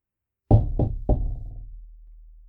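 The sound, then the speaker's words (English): Three firm knocks on a wooden door, evenly spaced with a slight resonant ring after each, with no voices. “You don't need to knock”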